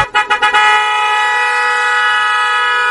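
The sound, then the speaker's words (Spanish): A chiva bus horn blares loud, opening with three or four quick stuttering toots before settling into one long, sustained multi-tone honk with no talking. “Sube, a la chiva, en camino hacia la paz.”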